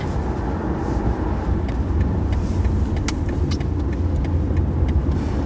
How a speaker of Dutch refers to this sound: We rijden nu op een smal weggetje met aan beide kanten auto's.